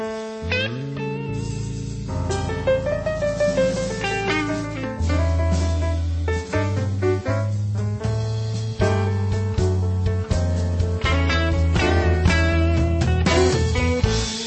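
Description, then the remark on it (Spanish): A full song plays with steady bass, layered instruments and a bright melodic line, loud and continuous throughout with a driving rhythmic pulse and no one talking over it. “Sin perder tiempo, damos lugar a uno de los ingredientes característico también de este espacio, la música. La canción de hoy suena así.”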